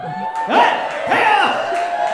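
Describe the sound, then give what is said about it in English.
An audience erupts in loud cheering when asked whether any engaged people are present, with high whoops and shouts rising in two swelling surges over a continuous roar of many voices. “the crowd goes wild.”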